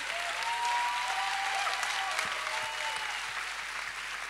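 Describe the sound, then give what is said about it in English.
A crowd claps hands in dense, continuous applause that stays loud and even throughout, a rapid wash of many overlapping claps with no pauses or speech. “Clap your hands о, like you hear this.”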